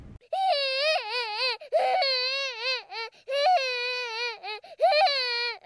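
A child cries loudly in fear during a bad dream, with high, strained wails in four or so long bursts broken by brief catches of breath, the pitch wavering up and down. No talking is heard.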